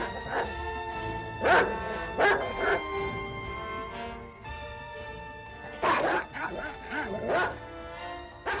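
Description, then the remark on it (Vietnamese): A neighbour's dog barks in short, sharp bursts, a few clustered together, then a pause before another flurry of yips and barks, as it lunges toward a man and backs away growling, over a steady background hum. “Con chó nhà hàng xóm thì cứ lao tới phía ông mà sủa, rồi lại lùi ra xa, gầm gừ và lại trồm tới, y như xua đuổi một tên trộm.”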